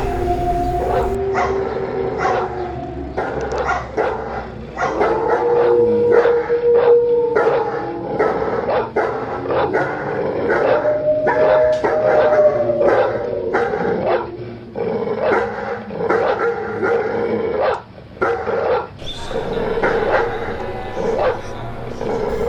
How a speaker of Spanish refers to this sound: También, en ese velorio se suscitaron hechos muy extraños, ya que todos los animales, los perros especialmente, comenzaron a ladrar fue un espectáculo completamente increíble.